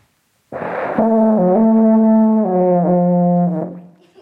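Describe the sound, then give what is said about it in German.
An alphorn is blown in one long, steady, low brass note lasting about three seconds, starting with a breathy burst, wavering slightly in pitch midway, then fading out. No one speaks. “die äh, sonst nur mit den Händen Hang spielt und jetzt mal in ein Alphorn blast.”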